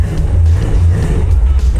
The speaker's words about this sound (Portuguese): com som de V8 no ouvido. Isso é simplesmente sensacional.